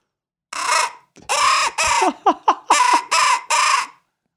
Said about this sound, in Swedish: Det här är då en eh, kråkpipa, Nordic, eh, eh Nordic Barrel, eh, eh inga glas, Nordic, Nordic Bearborn Pro Crow. Och då lockar man med den så här.